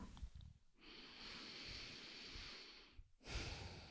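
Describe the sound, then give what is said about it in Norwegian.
A long, steady inhalation through the nose, a broad airy hiss lasting over two seconds, taken while standing during a breathing exercise, followed by the start of another breathy sound. “Trekke pusten.”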